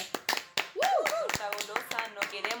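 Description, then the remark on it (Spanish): A crowd bursts into applause, with sharp, uneven hand claps continuing throughout, while voices whoop and cheer over the clapping near the start. “Un aplauso”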